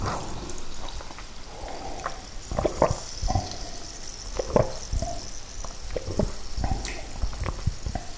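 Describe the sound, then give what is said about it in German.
Someone takes a sip of water: soft wet clicks, small gulps and faint liquid gurgles scattered irregularly over several seconds, with no talking. “Nochmal einen Schluck Wasser nehmen.”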